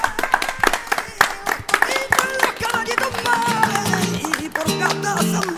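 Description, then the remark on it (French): An audience claps at the Bibliothèque publique d'information of the Centre Pompidou during the public recording of a broadcast, a dense burst of sharp, overlapping hand claps, loudest at the start, mixed with voices and tonal, singing-like sounds that carry on as the clapping thins out. “S'il vous plaît d'applaudir, ça peut être l'occasion.”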